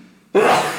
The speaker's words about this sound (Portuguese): Desculpem pelo espirro. Saúde.